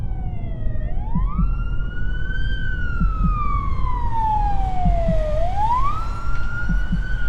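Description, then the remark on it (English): A loud ambulance siren wails in slow rising and falling sweeps as the ambulance arrives, with a steady low rumble of traffic or engine noise underneath and no voices. “The ambulance service arrived a short time later and came in.”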